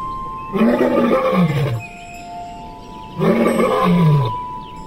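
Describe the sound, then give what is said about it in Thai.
A tiger roars twice, each deep, rasping growl lasting just over a second, with a short pause between them. The roars are loud, with no talking. “เอาไปปล่อยในป่าลึก จนกระทั่งถูกเสือจับกินเป็นอาหาร”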